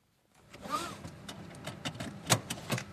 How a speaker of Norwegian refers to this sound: Et bilbelte blir festa, og med ny teknologi får du ikke starta bilen uten at beltet er på.